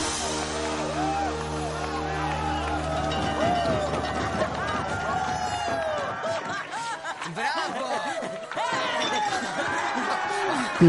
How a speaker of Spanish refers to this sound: Sus compañeros aplauden y gritaron